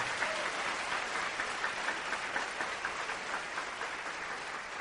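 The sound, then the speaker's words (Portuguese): An audience applauds God steadily, a dense wash of many hands clapping at an even, sustained level for the whole stretch, with no voices standing out. “Aplauda ele bem forte.”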